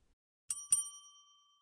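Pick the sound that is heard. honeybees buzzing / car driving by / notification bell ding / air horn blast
notification bell ding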